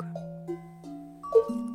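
Three large bells struck one after another in a loose sequence in a musical piece inspired by gamelan playing methods, each low, resonant tone ringing on and overlapping the others into a sustained metallic chord, with no voices.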